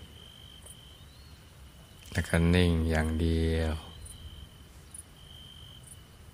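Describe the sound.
Quiet rural countryside ambience during a guided Thai meditation, carried by a steady, continuous high drone of crickets, with a calm voice speaking briefly over it in the middle before the insects continue alone.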